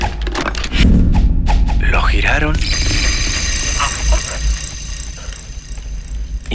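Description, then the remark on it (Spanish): A revolver cylinder is loaded with a single bullet and spun for Russian roulette: a quick run of metallic ratcheting clicks, fairly loud, followed by a steady mechanical whir with murmured voices and background noise beneath. “Al tambor de la pistola le pusieron una bala.”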